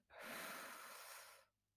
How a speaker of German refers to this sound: Aber ich nehme erst noch mal einen Zug vom Joint